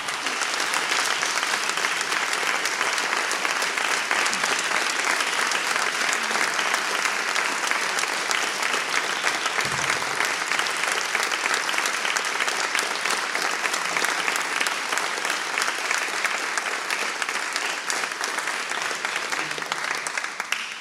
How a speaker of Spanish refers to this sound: Invitamos a nuestros músicos, a los protagonistas del concierto de hoy, aquí al el escenario del auditorio y los recibimos a todos con un aplauso, por supuesto.